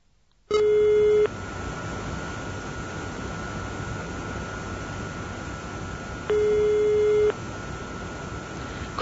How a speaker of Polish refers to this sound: Wańkę zdecydowanie sięga po telefon i wybiera numer burmistrza.